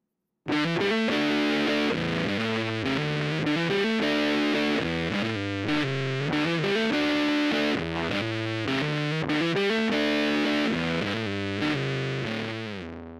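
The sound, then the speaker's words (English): A thick, fuzzy distorted electric guitar, played through a fuzz sustain pedal set to volume at 3 o'clock, tone at 1 o'clock and sustain at 11 o'clock, plays a double-tracked, sustained, singing solo line over a steady backing, notes held long and bending smoothly, loud and continuous throughout with no talking. “we're going to kick it on for the solo with the volume at 3 o'clock, tone at 1 o'clock, and sustain at 11 o'clock”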